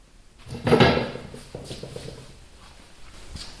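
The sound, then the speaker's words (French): A drawer holding small figurines of Artemis slides open with a loud wooden scrape, followed by quieter clattering and shuffling of the small objects inside. No one speaks. “Oui, oui qu'il y a dans ces tiroirs Des petites figurines.”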